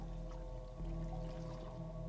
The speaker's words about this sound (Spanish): Él está echando agua bendita en todos lados.